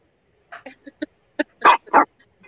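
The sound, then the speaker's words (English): A dog, cold and up on a rack, lets out a short run of yips and whines, building to two louder, fuller barks, with a couple of soft whimpers trailing after. “Uh, well, I think the dog likes that.”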